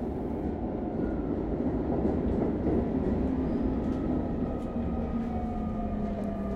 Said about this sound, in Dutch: Ik kijk uit het raam van de metro en als die stopt, staat er ineens de man voor het raam.